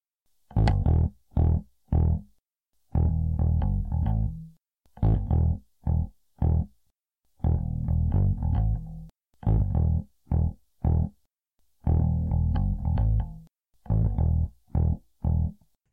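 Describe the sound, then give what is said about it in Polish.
A bass guitar plays a line through distortion-like effects, punchy low notes grouped into short repeated phrases separated by brief pauses, loud and alone with no talking. “A jeszcze na koniec oczywiście kolejna linia basowa tego tygodnia.”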